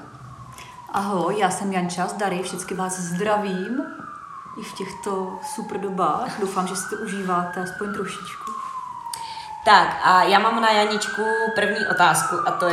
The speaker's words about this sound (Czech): Jo, to je sanitka, kdybyste nevěděli, co to je v tom pozadí. Se omlouvám, tady to tak jezdí, no, u nás v obýváku. Už to v pořádku všichni. jo, ne, nejelo to pro nás.